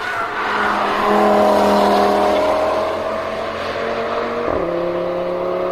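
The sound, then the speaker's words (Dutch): The engine of the new 400 hp Audi RS3 Sportback revs hard on the Nürburgring race track, a loud sustained roar with harmonics climbing steadily, then a sharp drop and jump in pitch like a gear shift near the end. “dat was de nieuwe RS3 Sportback op de Nürburgring.”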